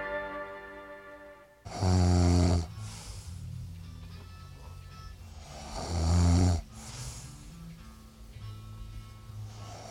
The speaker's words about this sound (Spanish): Ese no era yo, ¿eh? Era al final del tema. No me acordaba que al final del tema salió un tío roncando en el disco